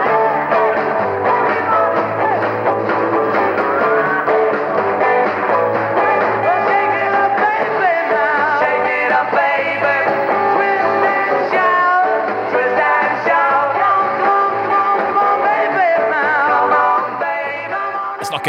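A live rock band plays an upbeat song at full volume as the last number of a concert, with driving bass, guitars and drums keeping a steady, energetic rhythm throughout, loud.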